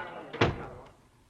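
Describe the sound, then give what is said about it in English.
A door swings shut with a single firm thud, fairly loud, followed by a short fading rumble. “Close the door”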